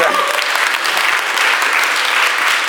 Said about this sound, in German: Ich bin so dankbar für unsere Kirche. Und weißt du, weshalb ich. Ja, gib mir einen Applaus.